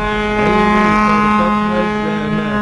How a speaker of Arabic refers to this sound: ما تقصد السفينه بالتدخيله بالفيلم